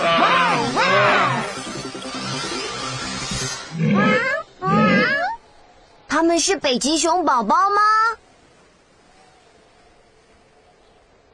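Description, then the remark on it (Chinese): After a short spoken question, loud walrus calls in the Arctic sea follow in bursts: two low, groaning bellows, then a quick run of higher, wavering barks and grunts before the sound drops to quiet. “No，他们是海象。”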